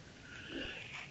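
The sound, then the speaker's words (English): A single sneeze: a breathy, rising intake of air followed by a sudden sharp burst right at the end, moderately loud with no talking. “I, I, bless you.”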